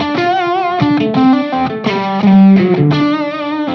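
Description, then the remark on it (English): An electric guitar played at full volume through a Jan Ray overdrive pedal rings out a loud, gritty phrase of sustained chords and notes, shifting every second or so, with thick harmonic crunch and no talking. “So if I if I kick the Jan Ray on, I just want you to check this out.”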